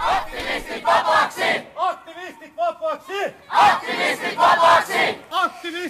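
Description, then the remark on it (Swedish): A crowd of demonstrators at a Greenpeace support demonstration outside the Slovak embassy, held by activists in Finland on Sunday 2 December, chants loudly in rhythmic bursts, voices rising and falling together, with a brief stretch of higher, drawn-out shouts in the middle before the chanting surges again. “Vi organiserade i mycket snabb takt en stöddemonstration utanför den slovakiska ambassaden på söndagen den 2 december.”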